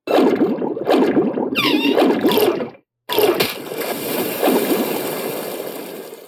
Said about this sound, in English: Slapped, grabbed you, took you down under the water.